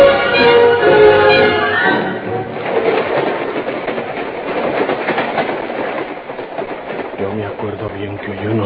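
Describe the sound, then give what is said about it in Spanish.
A train rolls steadily along its rails, a loud, continuous rumbling clatter that fills the whole clip, with indistinct voices and a tonal wail over it during the first couple of seconds. “Pero el tren no me dejaba oír bien y apenas iba subiéndome al carro.”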